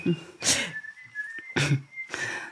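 A man whistles a tune close by, a thin, clear tone that holds and slides between a few notes, broken up by loud breathy bursts of air.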